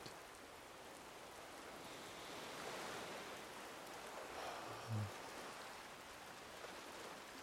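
Steady rain falls continuously on a beach by the ocean under gray skies, a dense, even hiss with no one speaking, its soft patter holding a constant level throughout, broken only by a brief low thump near the end.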